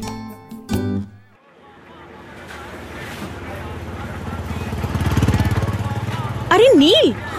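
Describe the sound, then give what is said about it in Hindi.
A motorcycle engine rumbles steadily, its throaty drone slowly building in loudness over several seconds, with a brief wavering whine at the very end. “अरे नहीं नहीं कोई और है आ, नील के पास भी ऐसी ही बाइक थी ना”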